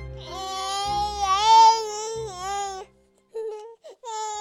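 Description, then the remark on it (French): A newborn baby girl cries loudly, one long wavering wail followed by a brief pause and two shorter sobbing cries. No one speaks. “Le 28 septembre 58, …, une petite fille, voit le jour.”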